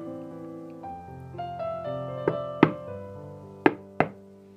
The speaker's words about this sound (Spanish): ¿Quién toca al portón? ¿Quién está a la puerta?